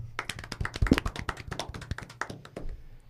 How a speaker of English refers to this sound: And I just want to say, first and foremost, congratulations to the Minnesota Wild for finally having a wagon of a hockey team. Can we all give a round of applause?